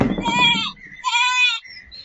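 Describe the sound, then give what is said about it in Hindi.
A goat bleats twice in quick succession, each call a wavering, nasal cry, fairly loud, with a short pause between them. “यो बकरी के आगो में आवे के छले है”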